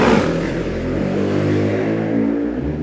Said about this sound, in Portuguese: A moto animadíssima.